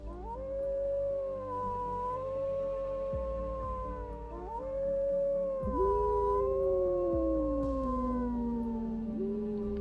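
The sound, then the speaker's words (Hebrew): Several wolves howl together in long, overlapping wails that rise and slide down in pitch, sustained and fairly loud throughout with no talking. “היללות הפעם יוצאות מהגרון שלך, ואת פושטת את פרוות הזאב.”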